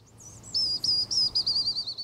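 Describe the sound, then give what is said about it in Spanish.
A person whistles an imitation of a Eurasian bullfinch's song: a string of thin, high, slightly wavering notes in quick succession, fairly loud over a faint low hum, with no talking. “Llama al Bouffron Pivron, un ave que tiene un canto un poco triste, incluso poco chiflado en virtuosidad, pero la ave es muy linda.”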